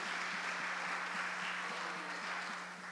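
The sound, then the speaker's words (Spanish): A crowd applauds steadily for the whole few seconds, a dense wash of many hands clapping at once that eases slightly near the end, with a low steady hum beneath it. “Ahí va un aplauso.”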